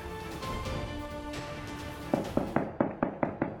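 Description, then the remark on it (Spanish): A rapid string of sharp gunshots, about seven bangs in quick succession, cracks out over a dense, noisy crowd background: armed men in military-style clothing with long guns opening fire on people at a clandestine cockfight in Las Tinajas, Sinapecuaro, Michoacán, Mexico, around 10:30 on a Sunday night. “Así, se escuchó el ataque contra los asistentes de un palenque clandestino en la localidad de Las Tinajas, en Sinapecuaro, Michoacán.”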